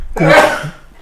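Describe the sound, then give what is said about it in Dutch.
A single sudden sneeze, fairly loud, with a brief voiced catch before a sharp, breathy burst that quickly fades away. “gezondheid.”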